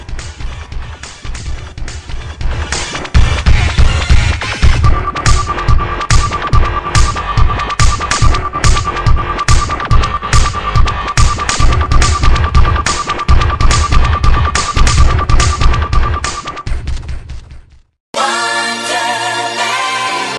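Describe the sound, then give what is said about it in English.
Loud, driving music from the enhanced version of a video game soundtrack, with a pounding, throbbing beat and a steady sustained tone running through it. It stops abruptly near the end and something different briefly follows. “this is the enhanced version of the soundtrack from X-Men 2 Clone Wars”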